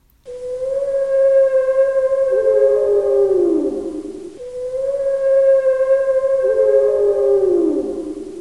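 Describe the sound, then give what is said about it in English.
A blue whale call sounds twice, each a long, loud, steady moaning tone with rich harmonics that slides downward in pitch at the end before fading. No voices are heard. “Blue whales have one of the loudest calls in the animal kingdom.”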